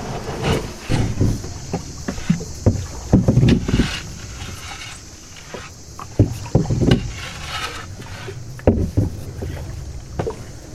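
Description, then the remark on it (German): A wooden dugout canoe dragged by hand by Indigenous people over the sandy bed of a shallow river, outboard motor switched off, with irregular bursts of gritty, low thuds and scrapes against a steady background hiss. “Der Fluss ist an manchen Stellen so seicht, dass der Außenbordmotor ausgeschaltet wird und die Indigenas ihren Einbaum von Hand über den sandigen Untergrund ziehen”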